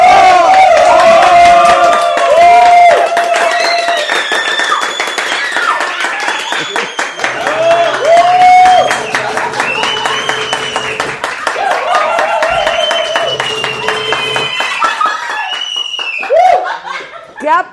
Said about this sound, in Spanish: aplausos. Impresionante. ¡Qué aplauso! la porra de la saga, Sí, la verdad, sí. Es grande esta porra, enorme.